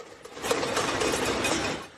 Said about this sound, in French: À la fenêtre de leur appartement, les habitants frappent sur des casseroles pour demander de la nourriture au gouvernement.